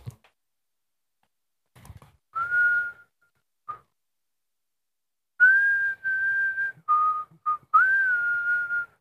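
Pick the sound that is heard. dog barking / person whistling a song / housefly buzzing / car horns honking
person whistling a song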